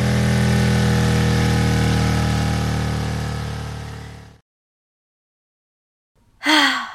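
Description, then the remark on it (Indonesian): A motorcycle engine drones loudly and steadily while being ridden, fading slightly before cutting off abruptly; after a short silence, someone lets out a breathy sigh. “sampai juga akhirnya aduh pantat gue udah pegel nih duduk di atas motor mulu”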